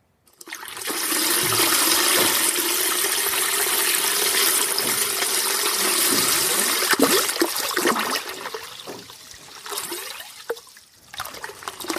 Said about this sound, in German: Ich nähere mich dem Beneficio der Wetmill. Die mit Wasser gefüllten Tanks laufen über. Das Wasser fließt in ein Becken, von dem es durch neu installierte Rohre in einem Filtertank geleitet wird.